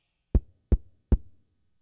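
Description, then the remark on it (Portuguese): Three firm knocks on a door, evenly spaced, each a sharp low thud with a short decay, followed by quiet. “De repente a porta bate.”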